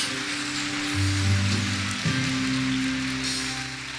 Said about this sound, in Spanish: Alguien de un fuerte aplauso al Rey del Cielo. Dije fuerte que es para Dios.